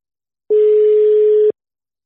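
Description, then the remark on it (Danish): A telephone dial tone on an outgoing call to Lars Kramer: one steady, mid-pitched beep lasting about a second, loud and clean, with no voices around it. “Men øh, jeg synes, vi skal prøve at ringe til Lars Kramer og høre, hvordan øh, han ser øh, på situationen i OB nu, og hvordan han ser frem mod de sidste 10 kampe.”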